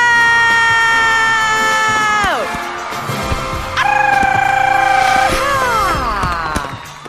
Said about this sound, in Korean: 이 정도 함성으로는요 나의 텐션을 끌어올릴 수가 없다고요 여러분 저기 저 아래 단전에서부터 끌어올려 봐봐요 다시 한번 소리 질러